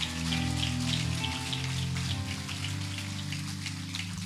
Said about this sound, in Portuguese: E se você crê nessa palavra, diga glória a Deus e aplauda Jesus mais uma vez, em nome de Jesus.